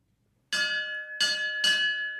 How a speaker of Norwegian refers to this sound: Eh, alle tingseter skal åpnes med klokkerynning, og dette er det nærmeste du kommer ei lagmannsklokke.